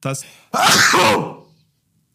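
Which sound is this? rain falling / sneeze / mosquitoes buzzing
sneeze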